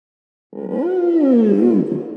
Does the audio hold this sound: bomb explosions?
no